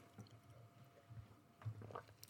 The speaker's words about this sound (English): I'm going to take a sip of water here.